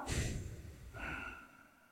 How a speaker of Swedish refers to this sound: Medvetet andas in genom näsan.